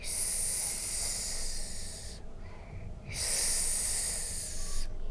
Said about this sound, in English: That's when I hear the eerie hissing noise the snakes made.